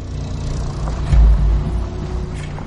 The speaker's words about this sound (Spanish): En el camino del desierto, un coche avanza. Es un coche de alta gama. Se acerca a la aldea.